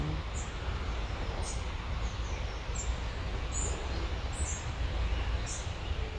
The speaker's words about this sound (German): Und du hörst dieses Vogelgezwitscher, all das, was drumherum ist. Und es ist wie eine Einladung, mit der Natur in Verbindung zu gehen sie zu fühlen und wahrzunehmen.